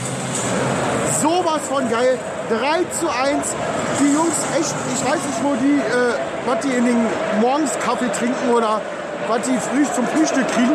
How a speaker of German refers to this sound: Hier aus dem Borussia Park live vor Ort. Ihr hört ja noch im Hintergrund das Stadion.